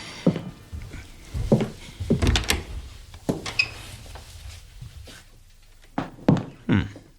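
A kitchen door inside a silent house is opened with a series of wooden clunks and rattles, a few sharp knocks spread across the moment, then two or three firmer thumps toward the end.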